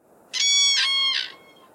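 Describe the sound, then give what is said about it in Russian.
A crane's call: one drawn-out, rich, reedy cry about a second long, swelling in three pulses, heard alone with no talking. “Тут ставим да. грустный крик журавля.”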